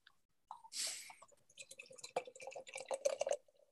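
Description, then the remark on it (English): A quick hiss, then beer glugs and splashes steadily into a glass, the liquid sound building busily for a few seconds with no one talking. “We haven't even poured it yet which I think I we should sort right now”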